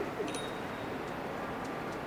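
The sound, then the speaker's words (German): Pigeons coo softly on the rooftops of Wiesbaden in late-afternoon sun, against a steady outdoor background hiss, with a few faint high chirps; no one is talking. “Einige Tauben fliegen in wagemutigen Manövern um die Dächer, andere wärmen sich in der Sonne.”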